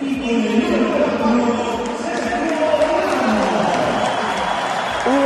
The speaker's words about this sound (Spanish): ovación para Ramos, pero hubo algún otro detalle, hubo pancarta, hubo cánticos, hubo placa.